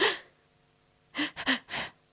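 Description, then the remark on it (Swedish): A voice imitates agonal breathing, ragged and gasping: one sharp gasp, a pause, then a cluster of three quick, irregular heaving gulps of air, fairly loud. “Agonal andning är bara så här, inte normal andning.”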